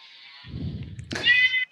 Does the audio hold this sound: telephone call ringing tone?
no